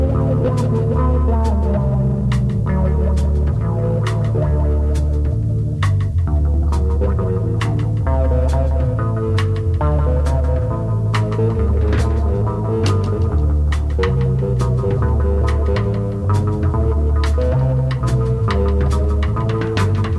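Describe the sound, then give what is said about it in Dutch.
A loud, full progressive rock recording plays steadily, with a heavy pulsing bass line, layered keyboards and guitars, and crisp drum hits keeping a regular beat throughout, no voices. “Dus ja, die hadden zo'n soort ja, prochrok ding.”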